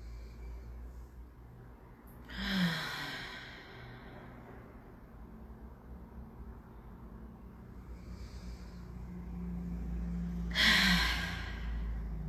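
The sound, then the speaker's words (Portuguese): A deep breath in followed, after a long pause, by a slow breath out. Both are airy rushes with faint hiss between them and no talking. “Respira bem fundo. Solta o ar bem devagar.”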